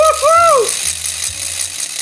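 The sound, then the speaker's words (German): A hand ratchet is spun, giving a rapid, continuous rattle of dry clicks that holds steady for about two seconds. A short rising-and-falling voice-like tone sounds briefly at the start. “Eine Ratsche.”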